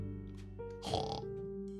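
Pigs grunt and oink in a brief, snuffling cluster, loudest near the middle, over a steady sustained musical drone. No one speaks.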